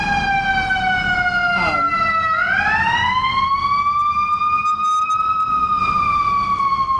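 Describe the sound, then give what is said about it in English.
A fire truck siren wails loudly outside, its tone sliding down and then rising again in a long sweep, steady and continuous over a low rumble of traffic with no talking. “Um, if I can just add, I'll wait for the siren.”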